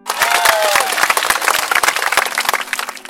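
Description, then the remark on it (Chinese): A burst of loud hand-clapping applause, many sharp claps blending into a dense, steady patter that lasts about three seconds without a break. “是不是值得给他一个掌声？”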